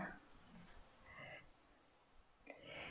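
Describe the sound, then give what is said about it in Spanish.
Many crickets chirp faintly in a large garden, a few short bursts of calls rising and falling over quiet outdoor background, with no voices. “¿Se escuchan los grillos también? Sí, tengo muchos grillos. Como tengo un jardín grande, los grillos siempre me cantan.”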